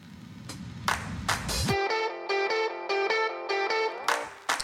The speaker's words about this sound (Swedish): det känns som att vi kommer lite byta ämne, så jag kommer slänga in en liten eh, okay. bumper här emellan.